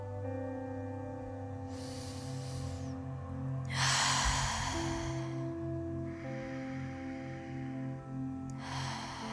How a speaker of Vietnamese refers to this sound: Hãy bắt đầu với một hơi thở thật sâu kéo dài xuống tận bụng và thở mạnh ra bằng miệng hoặc bằng mũi